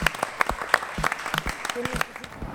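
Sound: studio audience applause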